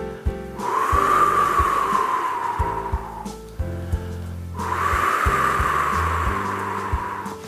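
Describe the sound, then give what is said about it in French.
Two long, breathy rushes of air blown through lips shaped into a small circle as a vocal cool-down exercise, each swelling and fading over a few seconds, imitating wind rustling through the leaves of trees, with a soft low hum beneath. “Alors je vous propose d'imiter le bruit du vent dans les feuilles.”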